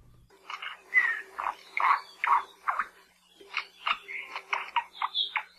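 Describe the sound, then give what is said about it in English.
An endangered native Hawaiian honeycreeper, the largest remaining in Maui Nui, about 7 inches long, mostly shiny black with orange, silver and white-tipped feathers and an unusual crest, calls in two bursts of harsh, buzzy, chattering notes, each run a quick rhythmic series of mid-high, slightly gurgling syllables, with no voices. “University of Hawaii Hilo professor Patrick Hart introduces us to an endangered native bird with a singular call and an unusual crest.”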